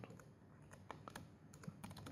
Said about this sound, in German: Wenn ich das auch noch richtig tippen kann.